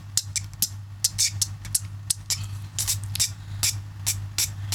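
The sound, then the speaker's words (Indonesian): Beatbox-style bursts of air pushed out by the mouth and by the tongue moving up and down: a dozen or so sharp, hissy puffs in a quick, uneven rhythm over a steady low hum, with no talking. “jadi kalau beatbox itu lidahnya juga apa namanya ikut main di situ lidahnya ke atas ke bawah lidahnya kayak dorong angin gitu”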